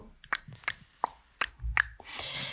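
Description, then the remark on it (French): A voice imitates a ticking clock with five crisp mouth clicks at a steady, even pace, fairly loud, followed by a short breathy rustle. “J'adore le bruit de l'horloge.”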